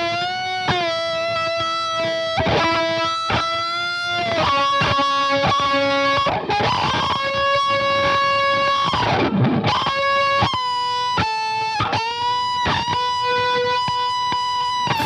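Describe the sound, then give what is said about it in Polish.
Loud overdriven electric guitar through Tonex plug-ins emulating an Orange amplifier, a 2x12 cabinet and an SM57 microphone, with a gritty amp tone, playing sustained, slightly detuned notes and chords in a steady riff, with a noisier, more chaotic strummed passage partway through. “i wreszcie wtyczki Tonex z emulacją wzmacniacza Orange, kolumną 2x12 i mikrofonem SM57.”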